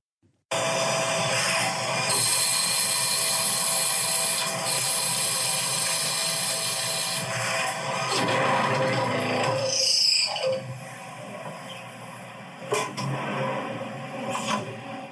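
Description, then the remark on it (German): A loud, steady grinding roar of a machine tool cutting a motor that could not be fully clamped, which abruptly breaks off into harsh scraping and clattering bursts as the tool crashes from overly aggressive cutting values, without any talking. “Klingt wie ein Crash. Ja, war leider auch einer.”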